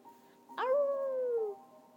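A dog lets out a single clear, happy howl lasting about a second, starting sharply and sliding gently downward in pitch before fading, against a quiet background.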